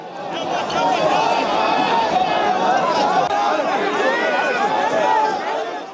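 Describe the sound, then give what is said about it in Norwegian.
A large crowd of angry demonstrators moving toward the Swedish embassy in Baghdad, Iraq, as armed security forces in helmets and with shields struggle to stop them; dense overlapping voices and shouts form a steady, loud roar with shuffling movement, sustained throughout without pause. “Dette er lyden av en stor folkemengde som er i bevegelse i retning Sveriges ambassade i Bagdad i Irak.”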